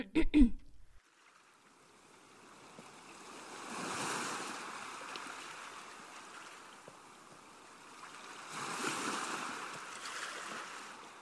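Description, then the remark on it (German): Ocean waves wash onto the shore in two slow swells, a broad hiss rising around four and nine seconds, then receding. Steady, moderately loud surf with no voices. “Das Meer ist der Spiegel, die Wellen rauschen, umspielen unsere Beine und es ist still.”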